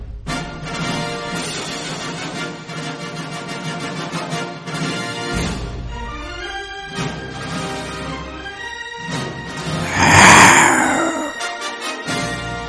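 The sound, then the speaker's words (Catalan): A person doing dubbing-style voice work imitates a lion's roar, one loud, raspy, growling burst lasting about a second that rises above a busy stretch of tonal, music-like sound. “Jo podria ser doblador de leones.”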